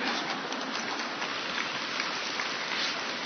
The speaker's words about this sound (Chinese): 还没鼓掌完呢